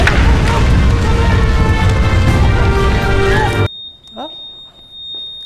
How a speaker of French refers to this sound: c'est un, alarme.